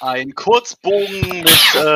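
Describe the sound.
A man is talking when a single sharp, loud sneeze bursts out, briefly cutting across his speech before the talking resumes.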